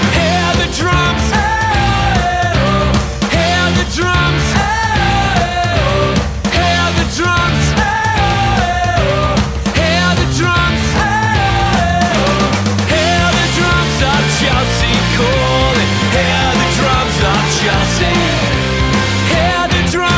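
A loud, dense Celtic punk song plays throughout, with pounding drums driving a fast, steady beat beneath bright melodic lines and a full, energetic band sound.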